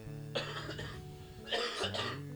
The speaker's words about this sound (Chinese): 我那咳嗽也还没好啊，所以吧，这期我们录短点儿，我俩全是大病初愈